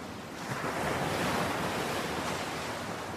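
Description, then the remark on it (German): Steady ocean surf washes onto a beach, a broad continuous rush of waves that swells slightly after the first half second, with some wind noise mixed in and no voices. “Du folgst den sanften geschwungenen Linien wo das Ufer auf das Meer trifft.”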